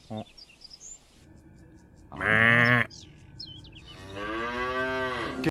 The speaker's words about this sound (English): nope, they're cows. They're cows.